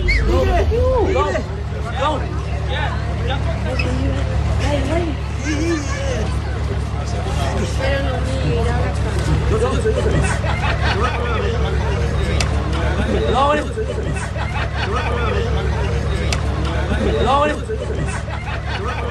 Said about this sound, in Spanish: la salida del estadio. Atención, escuchamos a la, a la gente